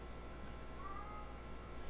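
A single faint, short cat meow rises briefly out of a steady low background hiss, quiet, with no voices.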